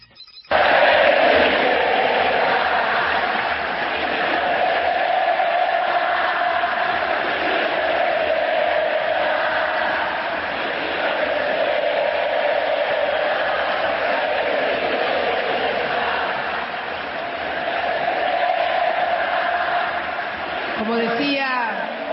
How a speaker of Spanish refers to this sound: 70.000 almas gritando Cristina presidenta y ella respondiendo.